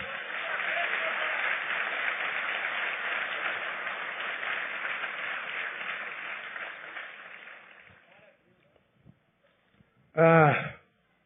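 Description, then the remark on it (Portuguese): An audience applauds God during a sermon in a dense, steady wash of clapping and cheering that lasts about eight seconds before fading out, followed by a short pause and a brief burst of a voice. “Pode aplaudi-lo porque ele merece.”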